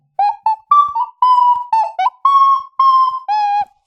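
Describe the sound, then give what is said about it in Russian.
A five-hole clay ocarina made by a craftsman from Pskov plays a short tune of about nine breathy, hollow notes in a steady rhythm, fairly loud, with no talking. “В общем, а, а Карина от Псковского мастер, классная, глиняная, с историей.”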